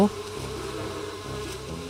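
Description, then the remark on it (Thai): A bee buzzes steadily in flight, a low droning hum with slight wavering pitch that holds at an even, moderate loudness throughout, with no voices. “และแล้วพึ่งใจดีก็พาด้วงขี้ควายเกาะหลังบินไปยังสวนดอกไม้ของเขา”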